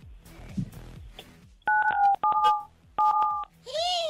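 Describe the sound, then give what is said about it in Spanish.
After a short stretch of speech, a caller to a 97.7 FM radio show dials 977 to activate the prize roulette: three loud, steady touch-tone keypad beeps, the last two a matching pair, followed by a brief warbling electronic tone. “Entonces tienes que digitar 977 y activar la ruleta regaladora.”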